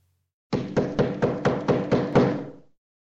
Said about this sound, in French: La chèvre accepta et s'endormit près de la porte. Comme prévu, en pleine nuit, elle entendit frapper.